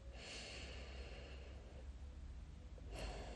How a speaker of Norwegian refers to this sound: Rolig, myke, dype pust. Fokus på det lange utpustet.